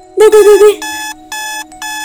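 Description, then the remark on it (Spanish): A voice briefly mimics a beeping alarm, then an alarm clock set three hours earlier sounds at 5 in the morning with repeated electronic beep bursts, fairly loud, in a steady on-off pattern. “Suena la alarma.”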